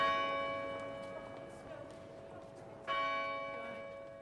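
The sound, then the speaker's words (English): A church bell in Kilkenny city centre tolls twice, each deep strike ringing out in a long shimmering hum that slowly fades, over faint outdoor street ambience. “You may leave the Kilkenny city centre bell behind.”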